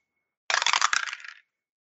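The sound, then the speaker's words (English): A quick clatter of dice rolled to resolve a single shot in a game, tumbling across a hard table, a burst of rapid clicks that rattles for under a second and trails off as they settle. “Ah, we'll have to bring a new set of dice in. Those dice work nicely with a zero six.”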